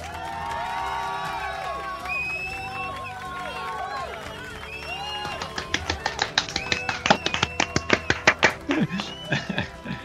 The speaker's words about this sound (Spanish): Este aplauso va para, la organización del motoclub de Boyuyo.